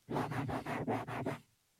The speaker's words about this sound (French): Ben, c'est un bruit de grattage plutôt. Ben, c'est parce que c'est les deux mains qui se frottent, regarde.